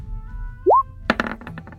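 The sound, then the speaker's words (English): Dice rolled across a surface for a stealth roll: a short rising plop, then a sharp clatter of clicks that quickly thins into a few lighter taps as they settle. No one speaks. “Give me a stealth roll.”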